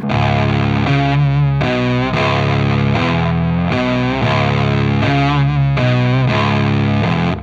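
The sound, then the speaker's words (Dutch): A loud, distorted guitar riff played through an octaver pedal, giving a thick doubled-octave tone, chopped into repeating blocks of sustained notes that change pitch every half second or so, with no voices. “En dan heb ik altijd eh, sinds eigenlijk de vorige plaat, wij gebruiken heel veel octavers.”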